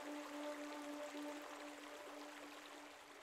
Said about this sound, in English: Several miles south of the city limits, you hike beside a sheer cliff within the desert lands. A gentle creek flows in the distance, filling the air with a wash of quiet sound.